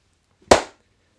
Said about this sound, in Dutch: Dan ga ik even checken of mijn audio wel goed is. Voordat we een hele aflevering hebben gefukt. ja, is goed. Wil je weer klappen?